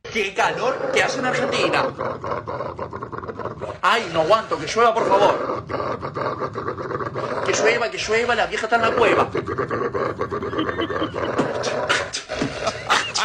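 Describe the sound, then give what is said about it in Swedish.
A dog growls and grumbles while a man from Argentina beatboxes alongside it, steady percussive mouth clicks and bursts keeping a loose rhythm throughout, loud and continuous. “Det är en kille från Argentina som beatboxar tillsammans med sin hund.”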